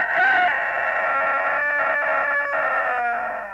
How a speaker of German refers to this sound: Darauf kamen die drei Landesflüchtigen an einen Hof vorbei. Da saß auf dem Tor der Haushahn und schrie aus Leibeskräften.